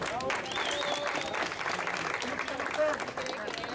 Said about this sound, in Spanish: Denle un aplauso, por favor.